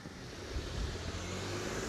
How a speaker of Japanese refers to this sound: ちょっと待ちましょうか車1台過ごしてって向かいの車も過ごしてって